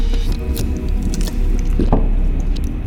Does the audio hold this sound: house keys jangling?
no